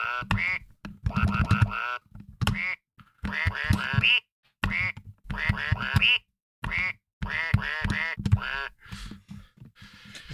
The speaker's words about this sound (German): Ente.